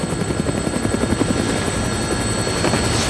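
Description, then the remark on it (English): In a video game, a helicopter's rotor thumps steadily and loudly with a broad whooshing roar as it flies overhead over a town, carrying a crew to film it, with no one speaking. “Looks like taking a helicopter was the way to go.”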